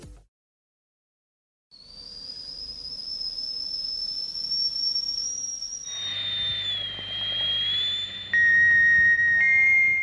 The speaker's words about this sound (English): Whistling tea kettles have been letting off steam. It's just a great, sweet sound. For at least a hundred years. It's primal to be able to put something on a stove and start with fire. It's just so elemental.